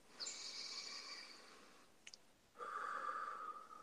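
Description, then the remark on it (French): One deep, intense breath taken with the jaw open during a guided exercise: a long airy inhale followed by a brief click and a strong, steady, slightly hissing exhale. Fairly loud, with no talking. “Voilà, vous pouvez ouvrir la mâchoire, Donc, dites avec moi, avec intensité, une respiration.”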